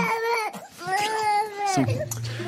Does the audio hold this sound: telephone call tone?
no